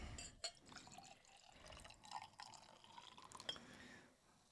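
Schnapps is poured from a freshly opened screw-top bottle into a glass in a quiet trickle lasting several seconds, with a couple of faint glassy clinks and drips along the way and no talking.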